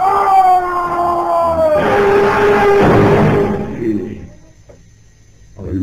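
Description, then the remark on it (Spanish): A distant scream of a man: a long, drawn-out wailing cry with a steady tonal pitch that breaks into a rougher, noisier burst before fading away, with no talking over it. “Cuando de pronto oyeron un grito lejano.”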